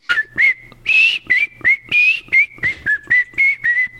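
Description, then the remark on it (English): A man whistles a short, bouncy TV theme tune, about a dozen breathy notes in a quick steady rhythm, with a slightly airy, uneven tone and no talking. “If I was any good at whistling, that would probably sound good, but I'm uh, not a very good whistler.”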